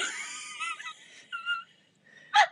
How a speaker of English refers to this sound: she's using a breathing method right now to calm herself down.